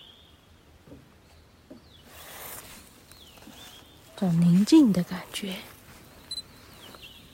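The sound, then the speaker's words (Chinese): Faint, high-pitched bird calls whistle on and off in a mountain setting, with thin repeated notes answering one another from the left and right. A person speaks briefly partway through. “你看这边左边有鸟叫声，右边有鸟叫声。”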